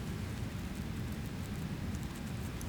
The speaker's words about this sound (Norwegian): Hør vannet som sildrer.